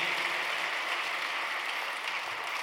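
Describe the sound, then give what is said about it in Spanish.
An audience applauds the Lord steadily, a dense wash of many hands clapping at once, sustained and fairly loud throughout with no talking over it. “¿Quieres aplaudir al Señor?”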